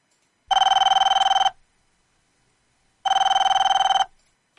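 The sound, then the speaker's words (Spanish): A telephone rings twice, each ring a loud, rapidly trilling electronic bell lasting about a second, separated by a pause of roughly one and a half seconds, with no talking. “Llamada de teléfono muy informal.”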